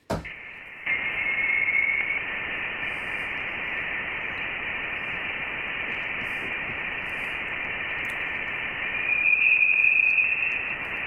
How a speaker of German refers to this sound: Also man hört auf jeden Fall viel Rauschen. Man hört viel Rauschen und man hört zwei Pfeiftöne. Ja. Einen gleich am Anfang.